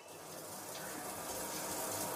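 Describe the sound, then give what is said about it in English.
Water pours steadily onto potted plants as they are watered, more than required, a continuous splashing gush that holds even for a couple of seconds and swells slightly at the end; fairly quiet, with no voices. “You are pouring more than required.”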